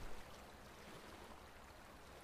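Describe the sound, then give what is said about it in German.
A babbling brook burbles steadily, its soft, continuous rushing and trickling water filling the background with no voices present. “Du hörst nur noch wieder den Bach plätschern und nimmst ganz langsam wieder den Duft von frischem Obst wahr.”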